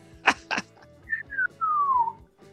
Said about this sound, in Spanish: los oyentes estarán quedando alucinados con tus silviditos